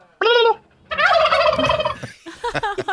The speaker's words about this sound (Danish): Og de der kalkuner, de går bare rundt og er kalkuner. Og øh, jeg ved ikke, hvad, de, de går bare rundt og ser dumme ud.